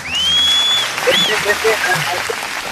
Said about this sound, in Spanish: No, cualquiera, no pues. cualquiera se gana estos aplausos míos, así que te, lo pues. ganaste.